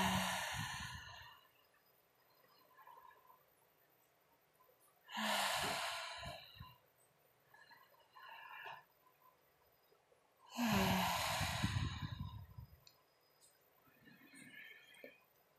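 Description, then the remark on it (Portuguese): Three slow, breathy exhales pushed through a lightly constricted throat during a guided breathing exercise, each a soft, hissing whoosh like surf, made to imitate the sea, spaced about five seconds apart with quiet pauses, without talk. “E agora eu vou te convidar a inspirar profundamente, exalar. Ah fazer esse som com a garganta bem leve, ah, como se fosse um mar.”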